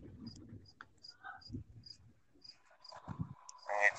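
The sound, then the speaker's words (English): A cricket chirps in short, high-pitched pulses repeating at a steady rhythm, fairly faint, heard over an online call as the connection cuts out, over muffled, broken low voice sounds, with a brief louder rush of noise at the end. “All I'm hearing is your cricket.”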